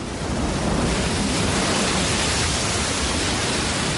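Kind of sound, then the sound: nature, ocean surf waves breaking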